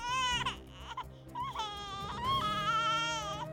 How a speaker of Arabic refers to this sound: إنها الصيحات الأولى ل… لقد ولدت للتو